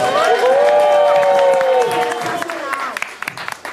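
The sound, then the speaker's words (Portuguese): An audience at the show Lado Negro da Força claps and cheers loudly for the DJ, with high whoops and voices rising over steady applause that thins out into scattered claps toward the end. “Antes de mais nada, barulho pro DJ Menizu, senhoras e senhores.”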